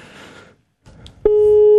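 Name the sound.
telephone line ringing tone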